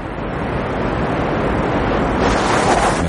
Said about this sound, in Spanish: Mendoza acarrea su fardo subiendo la pendiente junto a la cortina de agua de la catarata.